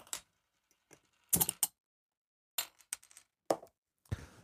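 beer bottles being opened

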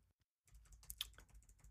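computer keyboard typing

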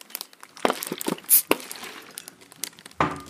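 beer being opened

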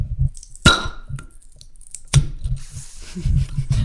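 glasses clinking

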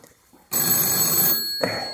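telephone ringing

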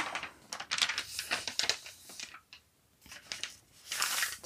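turning a paper page

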